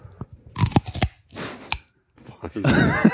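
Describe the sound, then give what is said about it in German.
Loud crunching as someone bites into a chocolate-coated Snickers ice cream bar, several sharp cracking bites followed by chewing and a brief rustle, with no talking. “Ich kann dir ein Snickers-Eis anbieten. Äh, also so ein Schokoriegel basiertes Eis. Nur wenn das so knuspert.”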